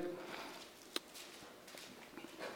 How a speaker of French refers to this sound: Ah, j'aime ça entendre des feuilles tourner. Ben là, va pas trop loin, t'es rendu dans l'Apocalypse, là.